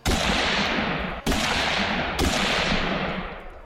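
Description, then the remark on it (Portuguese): Three loud gunshots fired into the air ring out about a second apart, each a sharp crack followed by a long echoing boom that rolls into the next, with no voices heard. “Ninguém dava ouvidos, até que surgiu Elizabeth, sabe-se lá de onde, e deu vários tiros para o alto.”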